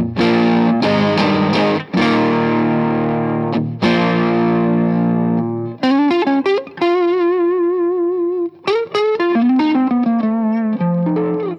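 A heavily distorted electric guitar plays through a distortion pedal with its Brown knob at maximum and tone and presence at 12 o'clock, with some background hiss: loud, saturated chords, then sustained single notes with wide vibrato and a lead run, with no talking.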